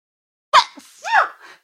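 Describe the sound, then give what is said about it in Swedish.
A single sneeze breaks the silence: a sharp breathy burst followed by a short voiced tail, loud and alone with no talking around it. “Prosit.”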